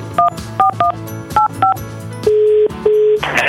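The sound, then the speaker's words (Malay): Five quick, clear telephone keypad beeps in an uneven sequence as a Radio Sinar presenter dials a listener, followed by two longer steady tones like a line ringing. Loud, with no one speaking. “Jom kita telefon.”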